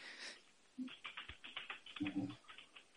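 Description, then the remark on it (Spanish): Rapid, forceful keystrokes clatter on a computer keyboard in an irregular stream of sharp clicks, loud, with a brief low murmur of a voice partway through. “mientras alguien asesina un teclado en vivo y lo tortura.”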